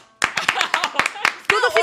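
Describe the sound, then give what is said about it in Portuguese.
An audience bursts into applause for a guest's presence after a brief pause, a dense, uneven patter of many hands clapping at steady loudness, with voices calling out over the clapping toward the end. “Eu queria pedir uma salva de palmas pela presença dela”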